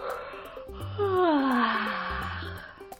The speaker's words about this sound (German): Und jetzt kannst du einmal ganz laut gähnen.